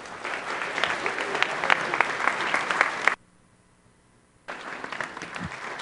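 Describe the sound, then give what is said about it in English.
An audience claps in a dense, steady round of applause for about three seconds as a speaker is brought up to share his story, then it cuts to near silence before the clapping resumes briefly toward the end. “So why don't we bring up Ben and give him a round of applause?”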